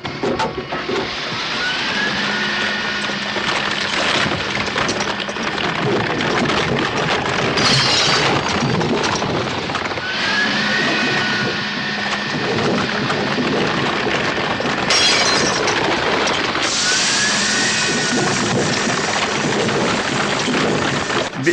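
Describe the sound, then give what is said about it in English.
Loud, continuous crunching and grinding of a car being crushed by crusher jaws, with repeated bursts of shattering and a steady mechanical whine underneath, harsh throughout with no voices. “But what I was missing was the most important sound of all, which was these jaws coming up, yeah.”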